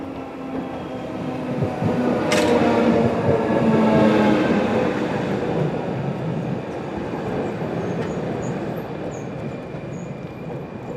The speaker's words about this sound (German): Schon nähert sich der Regio Express Davos.